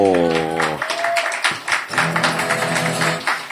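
An audience applauds with dense, steady clapping for several seconds, while loud sustained voices, like cheers or whoops, ring out over the clapping, welcoming the first guest onto the stage in Turin.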